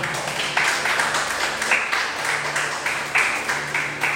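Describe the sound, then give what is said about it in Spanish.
A church audience applauds for God steadily, a dense wash of many hands clapping at once with surges in loudness, no voices standing out above it. “Dale un aplauso a Dios.”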